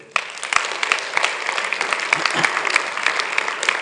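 A crowd claps steadily for several seconds, a dense patter of many hands with sharper individual claps standing out, at a fairly constant, moderately loud level with no talking.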